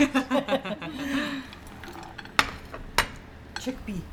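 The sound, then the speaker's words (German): Dishes clink as piping hot green tea from large pots is served to a family in a home kitchen: two sharp, bright clinks of crockery ring out clearly, with softer rattling and murmuring voices around them and a brief chuckle at the start. “Sie kocht riesige Kannen grünen Tee, den sie und ihre Familie brühend heiß trinken.”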